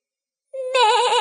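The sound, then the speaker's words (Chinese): A lamb named Shasha bleats toward the pasture at night: one wavering bleat rises out of silence, starting thin and then swelling into a loud, quavering, nasal 'baa' that lasts under a second. “咩！莎莎对着牧场叫。”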